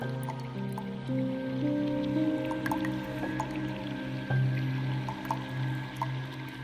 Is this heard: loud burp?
no